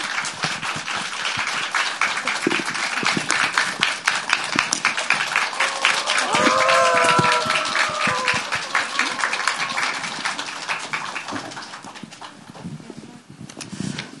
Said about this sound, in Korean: 이번에 신작 높고 푸른 사다리로 돌아오신 공정 작가님 모시도록 하겠습니다. 큰 박수로 맞아주세요.